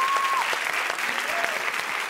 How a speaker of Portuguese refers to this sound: Uns aplausos muito calorosos.